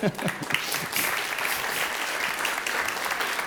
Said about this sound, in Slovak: Už tleskáme? Zatlieskáme spoločenstvu Hanusa, môžeme zatleskať.